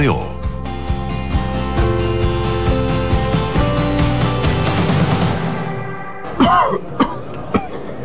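Upbeat music with a steady beat plays, then cuts out and a person coughs several times in quick, harsh bursts, fairly loud.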